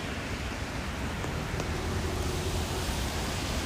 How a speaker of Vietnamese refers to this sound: nhưng mình quên mất là một tay mình đang phải cầm ô vì trời đang mưa mọi người ạ bây giờ mình đang đi dưới trời mưa